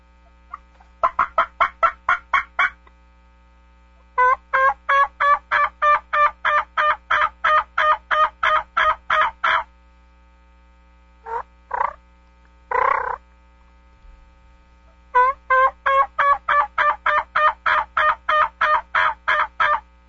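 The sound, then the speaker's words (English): Imitation turkey calls from a latex mouth call: long, steady runs of raspy yelps, broken by a few drawn-out single notes, loud, with no talking and a faint low hum behind. “Give us some samples from the uh, from right. the mouth calls here because we've only got about a little minute and a half maybe.”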